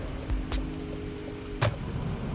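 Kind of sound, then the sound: vehicle, inside a moving car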